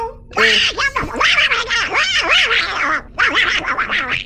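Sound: duck quacking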